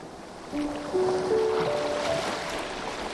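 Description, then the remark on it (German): Gentle, calm waves wash onto a beach with a steady, soft rushing, joined by a few sustained musical tones that step gradually upward above the water. No one speaks. “Du hörst das Rauschen der ruhigen Wellen und ihre stete Bewegung.”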